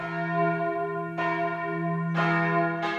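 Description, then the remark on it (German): The four church bells in the tower of the church in Beuerbach, in use since 2016, ring out loudly with rich, sustained overlapping tones, fresh strikes arriving every second or so over a humming resonance that never fades. No voices are heard. “Im Turm der Beuerbacher Kirche schaut Pfarrer Martin Rudolph zufrieden auf die Glocken, die nun seit 2016 das Gemeindeleben akustisch begleiten”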